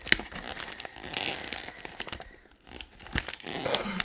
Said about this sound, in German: packt jetzt gerade das Geschenk aus, was ich mit sehr viel Liebe verpackt habe